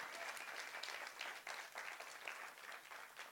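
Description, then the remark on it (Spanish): Sustained applause from an audience for their pastor, a dense steady wash of many hands clapping at a constant loud level, with no voices standing out above it. “Porque le damos un fuerte aplauso a la vida de nuestro pastor? Fuerte, fuerte, fuerte.”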